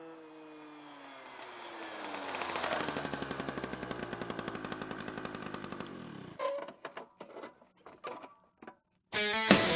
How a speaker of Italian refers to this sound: Che è quel giovanotto indisponente con la vespa scoppiettante che disturba la mia pubblica quiete?